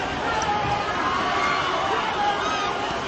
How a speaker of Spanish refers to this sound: Estamos en el encierro, corriendo los mozos, subiendo cuesta de Santo Domingo, qué bonito, sí que se oye, sí que se oye, hoy sí que se oye